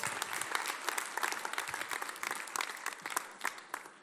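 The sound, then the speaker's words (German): An audience claps steadily for two people, a dense wash of many overlapping hand claps with no voices, holding at an even moderate level for about four seconds. “Gebt, gebt den beiden gerne Applaus.”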